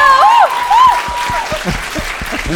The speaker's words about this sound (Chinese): 对了对了，要鼓掌一下。